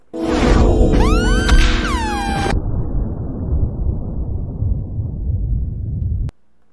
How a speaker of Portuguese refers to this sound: Mas, ainda na sequência, solta aí a sirene do absurdo de novo.